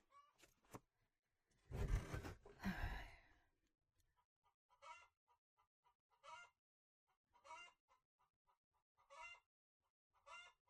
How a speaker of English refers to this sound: Goddamn chickens.